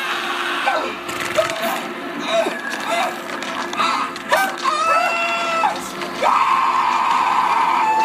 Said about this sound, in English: And this man. is exactly how I reacted. Scream. I'll just do it. I'll just do it.